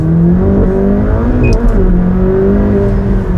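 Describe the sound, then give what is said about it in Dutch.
A sports car from a Formula 1 brand roars loudly at full throttle in track mode, a deep, steady, harmonic drone holding strong for the full few seconds, with no voices over it. “Vol brullen in de track modus.”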